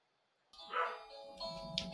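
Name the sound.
doorbell ringing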